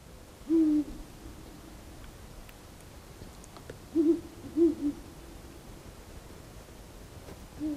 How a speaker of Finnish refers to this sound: siinä mentiin viirupöllöjen maailmaan.